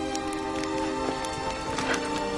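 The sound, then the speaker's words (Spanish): Horses' hooves clip-clop in a loose, irregular rhythm as horses are let loose, layered over a steady low hum and a constant hiss like rain. “¡Caballos! ¡Soltad caballos!”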